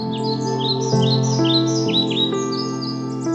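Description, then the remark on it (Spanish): A bird sings in a tree, a quick series of bright, rising chirps and warbles, continuous, as wind moves the leaves, over a steady low humming drone with no talking. “Un pájaro canta sobre un árbol mientras el viento mueve las hojas.”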